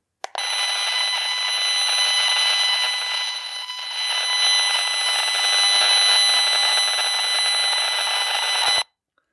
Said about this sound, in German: die Hochfrequenzmessgeräte haben so einen Akustikmodus, wo die elektromagnetische Schwingung in eine Luftschwingung, also in einen Ton, in ein Audiosignal äh, umgewandelt wird